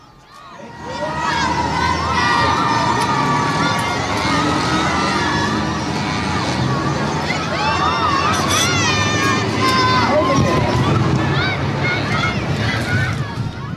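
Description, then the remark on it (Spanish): A large crowd of fans screams and cheers continuously as John Lennon and Yoko Ono look out of the window of the Hilton in Amsterdam. Shrill, high-pitched shrieks and whoops rise over a dense roar of voices, loud and sustained throughout. “Ahí escuchábamos la, locura de los fans cuando Lennon y Yoko se asomaban a la ventana.”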